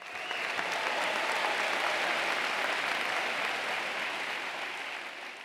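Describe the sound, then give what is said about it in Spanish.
A crowd applauds steadily for several seconds to welcome Mari Cona, author of the book Ordenadito es más bonito, as a guest on a program, dense clapping holding at a strong, even level before tapering slightly at the end, with no one speaking over it. “Recibimos con un fuerte aplauso a Mari Cona.”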